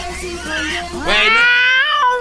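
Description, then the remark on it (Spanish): A voice imitates a yowling cat with a drawn-out, wavering wail that swells into a louder, rising second cry. It is fairly loud, with no speech around it. “Porque expulsaron al gato por la ventana.”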